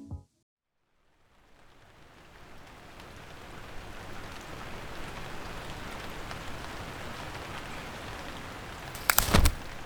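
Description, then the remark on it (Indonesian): Steady rain hisses down without a break, building gradually from near silence into a full, dense patter, with a sharper burst of drops or a gust near the end. No voices are heard. “Hari ini hujan lagi cukup nyebelin karena baju kotor gue makin menggunung.”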